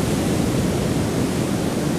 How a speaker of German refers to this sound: Wir laufen durch die Wellen